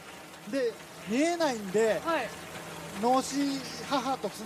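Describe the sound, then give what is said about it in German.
Steady rain hisses throughout in a video game scene, a soft continuous wash beneath louder, gliding voice-like calls that rise and fall in several short bursts. “Es ist nicht so, dass der Regen irgendwie so der Vorbote ist, dass jetzt die Monster kommen.”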